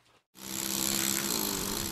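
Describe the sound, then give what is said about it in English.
A power tool starts up after a brief pause and grinds steadily against stone as a stone carver works on Vermont red slate in Newport, Rhode Island: a loud, continuous high-pitched whine with a gritty buzzing edge and no voices. “even when Nick Benson breaks out his power tools, he's not much faster”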